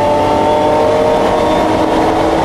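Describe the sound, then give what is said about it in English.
A loud vintage race car engine roars steadily, its buzzing harmonic drone revving continuously throughout without any voices. “People think I'm crazy because I drive my super expensive vintage race cars in vintage races that involve a lot of other cars and concrete barriers.”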